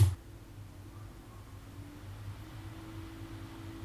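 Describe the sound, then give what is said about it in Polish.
Computer cooling fans whir steadily after a brief knock at the start, a low droning hum with a soft airy hiss, fairly quiet, with no voices, as the fans spin up during an operating system installation. “Jak słychać ruszyły wiatraczki?”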